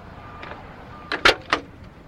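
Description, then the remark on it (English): A door opens with a faint creak followed by three sharp clunks and rattles of the latch and hinges, loud and abrupt, with no talking. “Whoa, Nellie's with the door that's on those hinges.”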